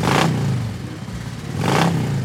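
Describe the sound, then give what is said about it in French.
A motorcycle engine revs hard twice as the rider sets off for a restaurant on rue Charlot, with two loud surges of throttle about a second and a half apart over a steady low engine drone, with no talking. “Il accepte donc c'est parti pour le Wild on the Moon rue Charlot et en moto, ça va plus vite.”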